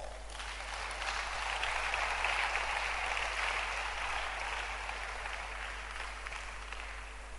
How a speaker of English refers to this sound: Clap your hands for her.